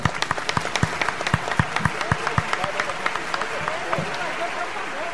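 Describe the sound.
A small audience claps steadily for about five seconds, the sharp individual claps clearly distinct and fairly close, with faint voices murmuring underneath as the applause gradually thins out.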